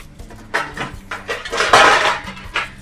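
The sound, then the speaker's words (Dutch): A bowl is grabbed from among kitchenware, producing a series of clattering knocks and clinks of dishes over a few seconds, with a louder jumble of rattling in the middle and no voices. “Dan, ik zou zeggen van het eerste wat je doet is een bakje pakken.”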